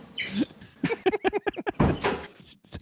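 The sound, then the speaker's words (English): A door is pulled open to let a cat out, with a rapid run of squeaky rattling clicks followed by a rushing, sweeping scrape, fairly loud, with no talking. “My cat is meowing at the door. I'm just going to let her out.”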